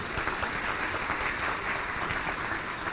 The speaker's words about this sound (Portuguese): Obrigado, queridos. Uma salva de palmas para os dois.